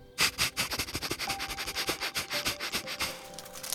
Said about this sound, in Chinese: 这时，柴犬透过它好用的鼻子和灵敏的嗅觉，开始寻找食物喽。